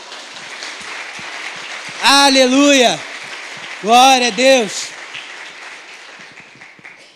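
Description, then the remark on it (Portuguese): An audience at a church service applauds the name of the Lord with a steady, dense patter of clapping that runs throughout, while a voice twice rises above it with loud, ringing exclamations before the clapping trails off. “Quantos podem aplaudir o nome do Senhor?”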